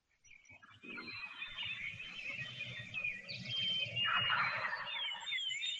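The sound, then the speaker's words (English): Wild turkeys gobble from their roost in a rattling burst partway through, over a steady dawn chorus of chirping songbirds and faint outdoor hiss. “This is uh I don't know if you'll be able to hear this in podcast land.”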